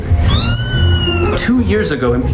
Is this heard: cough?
no